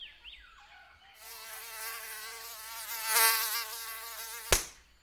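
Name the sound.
mosquitoes buzzing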